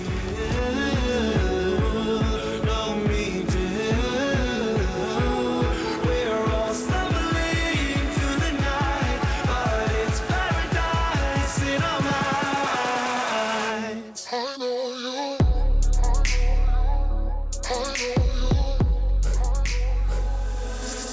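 A pop song plays at full volume with a steady beat, layered synths and a melodic vocal line, then briefly thins out before returning with a heavy bass-driven section.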